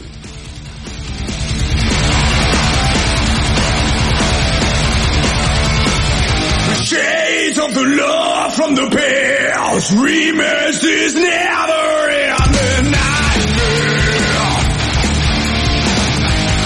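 A loud heavy metal song, the opening track of a band's new album, with dense, distorted guitars and drums; midway the band thins out under a bellowing, wailing vocal line before the full wall of sound crashes back in.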